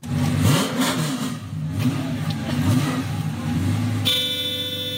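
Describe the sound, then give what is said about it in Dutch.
A car engine revs and idles, then a thin, feeble car horn honks in one steady blast for the final second, sounding weak and tinny. “De toeter werkt. Ja, een beetje lullig.”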